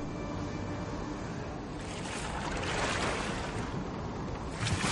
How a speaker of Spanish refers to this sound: De noche, en el mar, un bote con dos hombres se aleja de un barco.